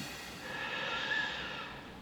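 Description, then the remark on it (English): A long, steady breath drawn in through the nose or mouth during a guided breathing exercise, a soft airy hiss lasting about two seconds, quiet, with no talking. “He sat cross legged, like everyone else, facing us, keeping us up to date with his eyes closed of whether he was breathing in. Breathe in.”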